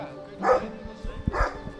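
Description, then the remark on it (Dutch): A dog barks twice, two short bursts spaced about a second apart, with faint room noise and no talking. “Eén hond is nu naar binnen.”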